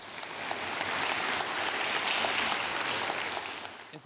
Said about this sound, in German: Dieser Applaus gilt Gott und nicht mir.